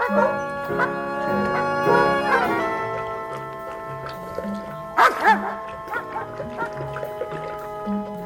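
A few sharp barks from dogs in a courtyard cut in midway over a steady, sustained musical drone, which then continues with soft, plucky notes.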